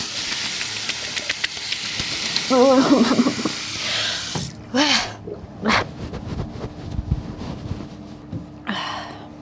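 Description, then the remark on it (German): Water pours steadily, then a few distinct splashes follow at uneven intervals as a person splashes ice-cold water onto their face in the early morning, with short breathy gasps and vocal exclamations mixed in between. “Was kann es Schöneres geben, als sich früher Morgen kaltes Wasser in die Fresse zu schmeißen?”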